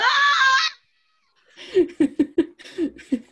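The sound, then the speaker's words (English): A person lets out a short, shrill, high-pitched scream lasting under a second, then a brief silence before a run of choppy, rhythmic bursts of laughter. “Unfortunately, screaming isn't a word.”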